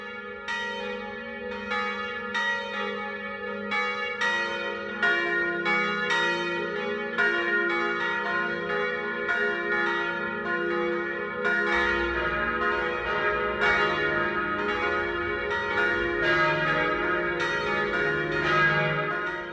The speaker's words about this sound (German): Es ist 12 Uhr. Das Mittagsläuten kommt heute aus Traunreuth in Oberbayern.